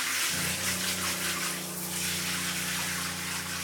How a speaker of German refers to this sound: Brigitte verschwindet in dem kleinen Badezimmer. Sie darf so lange duschen, wie sie möchte.